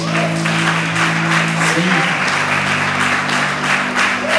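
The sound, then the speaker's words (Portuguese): An audience breaks into sustained, dense applause for God lasting several seconds, steady and loud throughout, with a low sustained organ or keyboard tone humming underneath. “Você pode aplaudir a Ele mais uma vez?”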